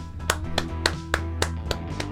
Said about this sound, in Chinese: 嗯， 我们为他鼓掌，